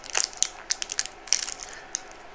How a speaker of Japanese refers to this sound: クラシカルクラッカークランチ塩キャラメル開けてみたよ